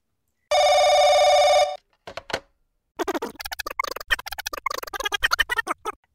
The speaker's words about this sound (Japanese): 芸能事務所の方から怒りの電話がかかってきてるんですけど。あの、社長、こっちでは、営飲料の会社の方から抗議の電話がかかってきてるんですけど。